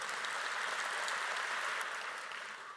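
Sustained morning applause from an audience for the Lord Jesus, a dense, steady wash of many hands clapping at once, holding an even level throughout before easing slightly at the end, with no talking over it.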